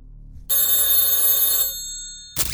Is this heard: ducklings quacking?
no